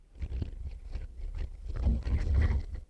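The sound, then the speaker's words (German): A printer starting up, a steady low mechanical whirring and rumbling with small clunks and rattles throughout, moderately loud, with no talking over it. “Wenn man das hören kann, geht gerade der Drucker an, warum auch immer.”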